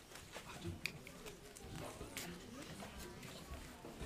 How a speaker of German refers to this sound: Und wie sich dieses Trommeln angehört hat, das hören Sie jetzt.